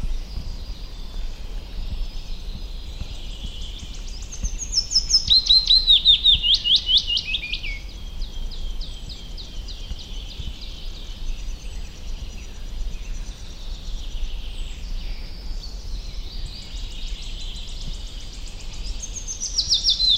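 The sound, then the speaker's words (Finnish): A willow warbler sings a clear, descending song phrase around the middle, with softer repeated phrases following, set against a steady low background hum outdoors in late spring with leaves coming out on the trees, with no talking. “siinä pajulinnun säe. Se on siis Suomen yleisin lintu.”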